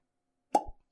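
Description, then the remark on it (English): A single sharp cork pop from a Four Roses whiskey bottle being opened, fairly loud, with a brief hollow resonance and a low thud trailing off just after. “Let's pause for a cork pop.”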